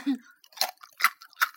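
Crispy rice crust crunched in the mouth: three sharp, bright crunches at a steady chewing rhythm, fairly loud, after a brief low murmur at the start.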